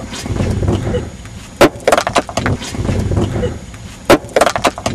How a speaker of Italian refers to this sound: Stavo spaccando la pietra.